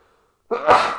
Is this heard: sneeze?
yes